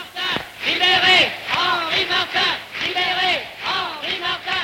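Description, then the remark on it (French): A loud, deep clamour from a crowd of many voices shouting together, rising from across the whole country, swelling in repeated waves roughly every second with no pauses between them. “sourdre de tout le pays une clameur profonde.”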